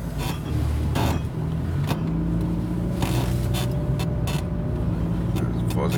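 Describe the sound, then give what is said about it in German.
A car drives past a bus at a school: a steady, loud low engine rumble and road drone fill the whole stretch, with a few brief bursts of noise cutting through. “ich an dem Bus vorbei. Hier ist eine Schule.”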